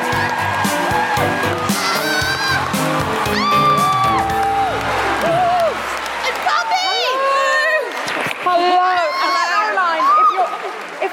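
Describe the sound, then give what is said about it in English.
A live crowd whoops and cheers loudly to welcome Caroline Criado Perez, many voices rising and falling in overlapping woo-hoos over steady clapping, sustained for the whole stretch. “Put your hands together and make extraordinary, guilty feminist, woohooing, welcoming noises for the wonderful Caroline Criado Perez.”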